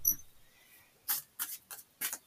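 Tarot cards being shuffled: a handful of quick, crisp papery bursts in an uneven rhythm, each a brief rustling slap, standing out clearly with no talking over them.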